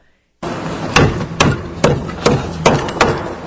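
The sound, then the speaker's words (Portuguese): An auction gavel bangs six times in a steady rhythm, each sharp wooden knock loud, over a constant murmur of room noise, as Tarcísio hammers it at B3 after the Rodoanel auction. “em ação, martelando lá na B3. Depois, depois do leilão do, do, rodo, do rodoanel, né?”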